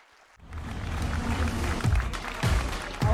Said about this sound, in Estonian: Raag Rätt, aplaus!